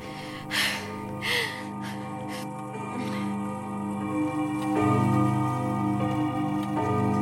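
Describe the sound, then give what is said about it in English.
A clock that chimes every 15 minutes ticks a few times, then rich, sustained chime tones ring out and swell louder partway through, their resonant notes lingering and overlapping with no one talking. “Oh, I love that clock. Growing up, I'd lay awake at night listening to it ring every 15 minutes, waiting for my dad to come home from work.”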